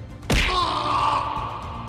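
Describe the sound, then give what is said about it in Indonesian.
One loud fist punch to a chest lands with a hard thudding whack, then a sustained ringing, humming tail lingers for over a second. No one speaks. “kumam Pollux yang kemudian tiba-tiba melesatkan tinju langsung ke dada kiri Amikus”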